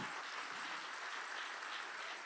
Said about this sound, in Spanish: Si le va a dar el aplauso al Señor, ay papá.